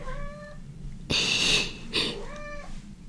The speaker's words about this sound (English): Oh my gosh, you guys could hear my cat. um, yeah, she's right here.